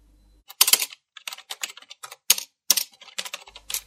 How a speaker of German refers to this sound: Während Sylvia Klammer weiter ihre Tastatur bearbeitete